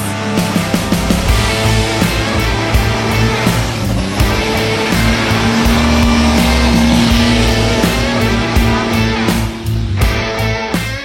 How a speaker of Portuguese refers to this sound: Os tratores especialmente projetados chegam a atingir mil cavalos de potência, transformando-os em feras das pistas.